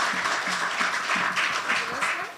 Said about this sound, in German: Ja, da gibt es nochmal Applaus, logisch.